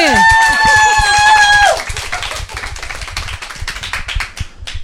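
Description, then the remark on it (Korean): A loud, sustained cheering shout holds steady for over a second, then gives way to a rapid burst of hand clapping: sharp, dense claps continuing to the end. “네, 박수 한번 야, 그럼 아까처럼 소리 네. 크게 질러야지.”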